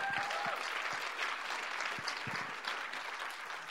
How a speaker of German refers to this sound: Gebt ihm ruhig einen Applaus.